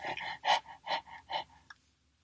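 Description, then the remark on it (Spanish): A voice imitates dogs panting in summer heat: quick, breathy huffs in a steady rhythm, about six pants over two seconds, ending with a short catch and then silence. “No sé en realidad por qué los perros en verano sacan la lengua y están todo el día con la boca abierta haciendo...”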